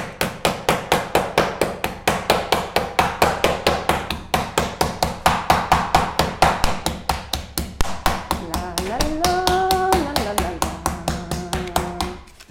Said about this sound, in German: klopfen jetzt halt nicht eine Portion, sondern sechs. Ja, die sind mal richtig beschäftigt jetzt. Ja. Klopft einfach schneller. Los, klopft schneller. Noch schneller.